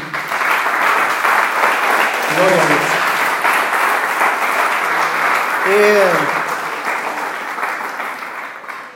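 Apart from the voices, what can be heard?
audience applause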